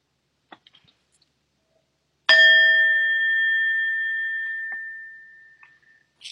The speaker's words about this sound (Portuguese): Então, eu vou convidar o sino a soar daqui a pouquinho e a gente vai terminando essa nossa prática. Não se mexe ainda, mesmo quando você escutar o sino.